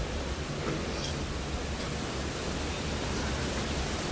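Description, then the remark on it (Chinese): Strong typhoon wind roars in a dense, unbroken rush of noise, holding a fairly steady level for the whole stretch with only slight swells. No one speaks. “听到风声，感受到这个风像浪一样，你会怎么样呢？”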